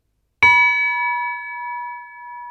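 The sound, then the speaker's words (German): A small bell, at most 30 cm tall and 30 kg, from Francesco Piemontesi's collection of bells in his apartment, is struck once, its clear, bright tone ringing on with a gentle shimmer and fading only slowly. No other sounds are present. “Keine tonnenschweren Kirchenglocken, sondern maximal 30 cm hoch und 30 kg schwer, wie diese hier.”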